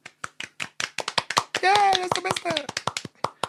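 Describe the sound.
Steady hand clapping, a quick run of sharp, bright claps for about three and a half seconds, with a drawn-out voiced cheer rising over the middle of it; applause for the team's cutter and sound technician.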